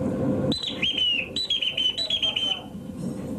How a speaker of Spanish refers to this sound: Mientras el capitán se preocupa, la tripulación revisa las órdenes de silbato con el contramaestre. La primera, entro. Eso es entro de la tierra. Eh, entráis, según suena el pito, vais entrando con el cuerpo.